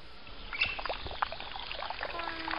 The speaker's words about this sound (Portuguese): Droga, meu cabelo. Vem, vamos pro pátio, vamos tirar o melado. Bom, primeiro vamos jogar um pouco de água, né?